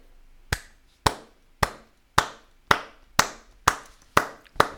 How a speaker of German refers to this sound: Genau, und ich habe wieder mal, ich habe diesmal nicht zugeschlossen, dafür hätte ich gerne erstmal generell einen Applaus von allen.